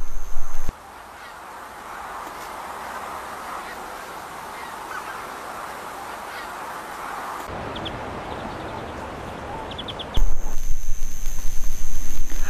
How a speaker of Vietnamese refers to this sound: Âm thanh của sự chuyển động của những con chim gần đó đã đánh thức con mèo báo.